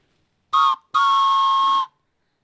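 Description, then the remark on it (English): A train whistle is blown twice, a short toot followed by a longer sustained blast, loud with a breathy multi-tone chord and no talking. “Oh, oh yeah, we have a train whistle now.”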